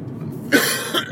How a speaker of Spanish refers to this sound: Sigo con mi tos, todavía no me he curado del todo, está claro que voy a tener que ir al médico porque esto ya dura demasiado.